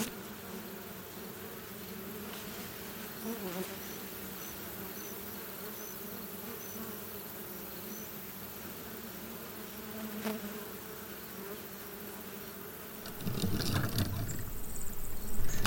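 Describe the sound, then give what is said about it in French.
A steady, dense hum of many honeybees buzzing around a hive, continuous throughout, swelling louder and busier near the end. “Là, les abeilles euh, on travaille euh, sur euh, toutes les fleurs qui ont précédé.”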